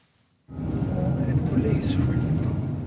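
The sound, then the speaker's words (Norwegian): After a brief moment of silence, the steady low rumble of a car driving cuts in abruptly and carries on, loud and continuous, with engine and road noise throughout, as the car drives past the spot in Malmö, Sweden, where a father of four was found shot. “Bilen kjører forbi stedet der firebarnsfaren Ahmed Hadros ble funnet med flere skudd i kroppen.”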